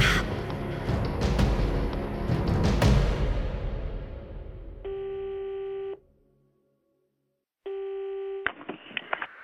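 A phone call rings out with two steady electronic ring tones separated by a pause of silence, following a few seconds of noisy clatter, then cuts off as if answered.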